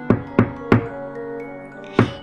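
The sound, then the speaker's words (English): Three quick, hollow knocks on a wooden cottage door in a steady rhythm, a pause with a faint ringing tail, then one more knock. Each rap is sharp and fairly loud, with no voices. “He knocked on the door, pretending to be Little Red Riding Hood.”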